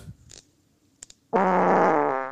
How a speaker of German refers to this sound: Sehr schön. mit viel Vorlauf, ja, aber sehr nass. Ja, ja. Der ist jetzt sehr nass ja, jetzt mit sehr nass tönt. Ja. Soll ich noch eine Geschichte hinter dem Furz erzählen?